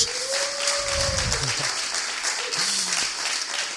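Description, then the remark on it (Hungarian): A big, Hungarian-style round of applause welcoming a guest teacher from Ghana: dense, steady clapping from a crowd fills the whole stretch at a fairly loud, even level, with a few brief tonal sounds and murmurs underneath. “Köszöntsük egy nagy tapsal, egy ilyen magyaros...”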